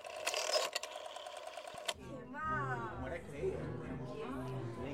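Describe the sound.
A telephone receiver is picked up with a close, rattling mechanical clatter lasting about two seconds, then a voice begins speaking.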